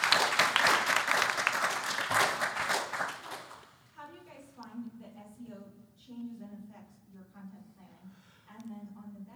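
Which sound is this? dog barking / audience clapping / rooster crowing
audience clapping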